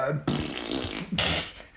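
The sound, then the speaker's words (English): Someone blows a loud raspberry imitating a fart: a long buzzing sputter followed straight away by a second, shorter burst, with no words spoken. “They both look like they'd fart a lot.”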